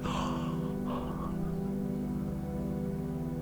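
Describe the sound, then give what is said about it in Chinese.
A long, drawn-out yawn: a breathy intake followed by a sustained, voiced groan-like tone that holds steady for a few seconds, heard on its own with no talking. It is the hundredth in a series of yawns. “九十九个哈欠，第一百个哈欠。”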